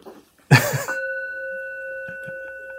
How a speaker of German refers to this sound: und der Dong. Ja, ach, der Gong.